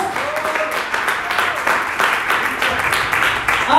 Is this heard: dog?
no